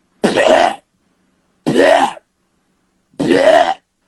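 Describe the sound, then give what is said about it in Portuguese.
A voice mimics a tom-tom drum as a sound technician would process it with a gate and compression: three evenly spaced, punchy vocal thumps, each with a slight downward pitch sweep, fairly loud with silence between hits. “Aí nego liga gate, comprime, aí faz.”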